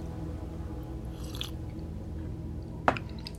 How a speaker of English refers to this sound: Okay, so why don't you grab a sip of your coffee? I'll grab a sip of mine really quick.